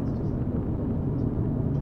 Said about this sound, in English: The only vehicles drifting past you in these wee hours are the long haul truckers and the occasional beater car, glowing red cigarette butts flying from the window like a shooting star.